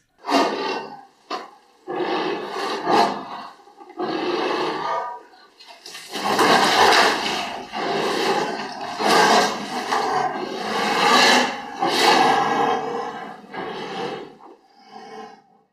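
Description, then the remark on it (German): Two anteaters at a zoo, put together for the first time, vocalizing in a run of harsh, breathy huffs and rasping roars, bursts of varying length that overlap and come irregularly, fairly loud, with no talking. “Das waren zwei Ameisenbären ähm, aus dem Zoo in dem Fall, weil das der Ameisenbär tatsächlich ein Tier ist, der in freier Wildbahn sehr selten Geräusche macht.”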